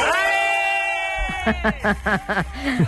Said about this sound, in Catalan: de qui són aquests crits? La veritat és que no ho sé, perquè em van enviar molts vídeos del moment i aquest no recordo qui me'l va enviar i no, no reconec la veu, no reconec la veu.